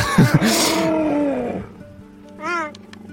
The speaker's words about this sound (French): c'est un, bébé guépard. Forcément, c'est du guépard, c'est le, meilleur sprinter de la planète, mais euh, c'est vrai qu'il fait tellement de bruits différents. Euh, ça s'approche beaucoup du, petit chaton.